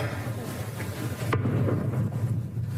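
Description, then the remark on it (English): A single deep cannon boom from a 96-gun salute to Queen Elizabeth, fired just outside Buckingham Palace a day after her death, goes off partway through, its low rumble rolling on afterward over a steady outdoor hum. No one speaks. “Tributes to Britain's longest reigning monarch have included a series of 96-gun salutes, as CBS's Steve Futterman tells us.”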